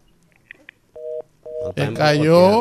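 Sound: telephone line dialing tones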